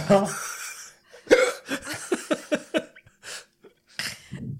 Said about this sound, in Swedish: Och så fick du hicka också.